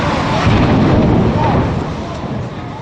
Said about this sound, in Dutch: Het is kwart voor negen ochtends als in New York een vliegtuig in één van de torens van het World Trade Center vliegt. Oh shit!